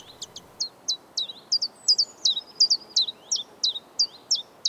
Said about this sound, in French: Son chant est simple à retenir et facilement repérable parmi les premiers à retentir au printemps. C'est une suite sautillante scandée sur deux notes, chif chaff, qui lui a valu son nom anglais de chiff chaff